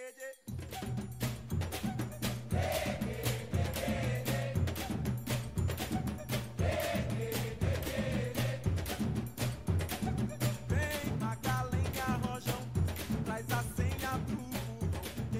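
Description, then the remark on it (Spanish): An upbeat samba song driven by heavy, busy percussion with a bright cowbell-like clang, steady pounding low drums and a singing voice over the top, loud and continuous throughout. “Y si tú te fijas, en esa no hay tanta la guitarrita que ya oímos. Exacto. Sino que más percusión.”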